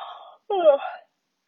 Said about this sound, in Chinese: 一个大大的哈欠，很有意思吧？